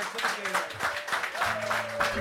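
Sustained audience applause for a programme's house band, a dense wash of many hands clapping steadily at moderate loudness, with faint tonal hums and a few overlapping voices underneath.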